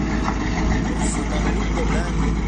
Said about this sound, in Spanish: nos vamos disfrutando del amanecer, disfrutando de todo, de la música, ¿eh? la camioneta, el andar de la camioneta, el sonido de fondo del amanecer